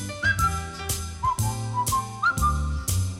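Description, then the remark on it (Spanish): A bright whistled melody carries a bouncy tune over light instrumental backing, with steady rhythmic accents and a walking bass, clear, no voices. “vamos a hacer lo que hacemos siempre los viernes, que es poner la sintonía de la mesa crítica”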